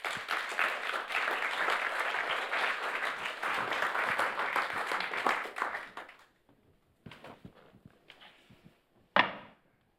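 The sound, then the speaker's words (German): An audience applauds two people invited onto the stage, in a dense, steady burst of clapping for about six seconds, then it trails off into a few scattered claps and a final sharp knock-like thud. “Gerne Ihnen doch einen Applaus, wenn Sie führen können.”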